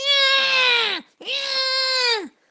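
A newborn baby cries loudly in two long, strained wails of about a second each, separated by a brief catch of breath, with each wail sliding downward at the end.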